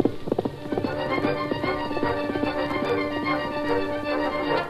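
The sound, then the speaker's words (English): Horse hoofbeats gallop through the night in a steady, rapid rhythm, loud, pounding on without pause over sustained background music. “The steady pound of hoofs sustained throughout the hours of darkness.”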